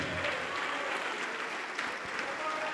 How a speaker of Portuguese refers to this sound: Aquele que tem todo o poder no céu e na terra, ele vai te abençoar e vamos aplaudir mais ao Senhor Jesus, igreja.